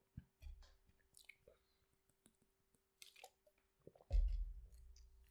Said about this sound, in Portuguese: Deixem-me só beber água.